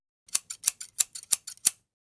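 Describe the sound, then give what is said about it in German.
A quick run of scissor snips, about a dozen sharp metallic cuts in a fast, slightly uneven rhythm, clear with no voices, used as a tone in a committee meeting recording where a speaker did not consent to being recorded. “Haben wir diese Zustimmung nicht erhalten, hörst du diesen Scherenton.”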